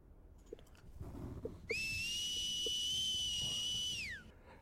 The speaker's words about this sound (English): A, lo- a very piercing, loud whistle.